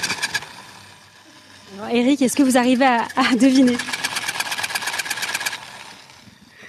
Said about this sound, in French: voilà. Ah, c'est difficile. C'est impossible. C'est un cochon mécanique. Donc je pense que ah, si vous êtes dans votre voiture, vous pouvez pas reconnaître.